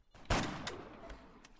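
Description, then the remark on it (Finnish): Video game gunshots: one loud, booming shot followed by three quieter, sharper shots at irregular intervals, each with a short echoing tail, and no voices. “No nyt sä ammuit no, sen!”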